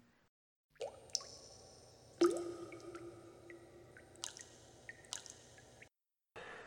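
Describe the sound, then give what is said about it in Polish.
Someone takes a sip of water: a soft slurp and wet swallowing sounds with small clicks and drips, quiet, with no talking. “Wracamy po już przerwie technicznej po łyku wody”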